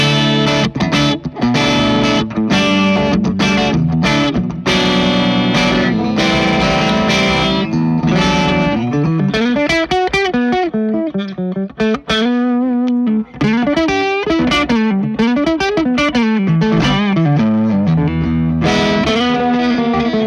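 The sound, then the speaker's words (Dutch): A distorted electric guitar plays loud, sustained chords with some melodic bends and slides, rich in harmonics and continuous throughout, with no voices present. “vallen we nu ook weer op dat akkoorden op deze gitaar klinken zo...”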